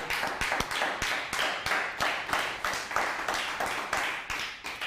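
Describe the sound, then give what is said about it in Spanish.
Applause from a group for all the nations, steady clapping with sharp percussive claps standing out in a quick irregular rhythm, fairly loud and sustained throughout, no voices. “un fuerte aplauso a todas las naciones nuevamente.”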